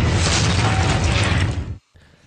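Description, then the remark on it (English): A loud, heavy rubber stamp being pressed down, a dense mechanical crunch that fills over a second and then cuts off abruptly, leaving only faint residual noise. No one speaks. “This so, is a loud stamp, you know.”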